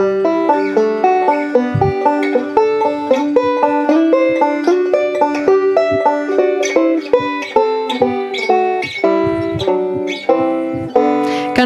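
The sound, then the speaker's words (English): A banjo plucks pairs of notes together, climbing and descending through a harmonized G scale starting on G and E (G-E, A-F sharp, B-G, C-A, D-B, E-C, F sharp-D, back to G-E) in a steady, even rhythm. Bright, twangy attacks ring out with no talking. “So that would sound like this.”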